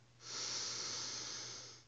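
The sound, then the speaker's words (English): A single slow, deep inhale through the nose during a guided breathing exercise, a soft airy hiss swelling over about two seconds and then fading, quiet with no one speaking. “So taking a deep breath, breathing in, breathing out.”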